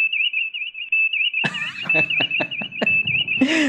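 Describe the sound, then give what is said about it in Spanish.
A continuous high-pitched alarm tone warbles steadily throughout, loud, while clattering knocks and a brief voice break in over it during the second half. “a ver, pero tenemos que escucharla. Es, bonita la alarma.”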